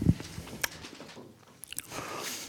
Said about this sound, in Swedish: Förlåt att jag tuggar med, pratar med mat i munnen.